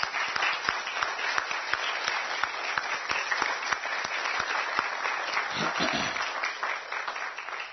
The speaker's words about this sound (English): uh, to all of you that labored and, and, worked so hard, thank you, and may God bless you. Let's give them a round of applause.